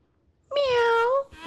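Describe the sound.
A person imitates a cat with a single drawn-out, loud meow, its pitch rising slightly then falling before cutting off, followed by a brief faint breathy sound.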